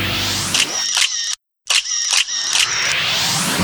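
Mechanical clicking and ratcheting of the winding lever and shutter of a Smena 8M film camera (produced 1970–1995), loud and busy, broken by a brief silent pause midway before the winding resumes. No voices.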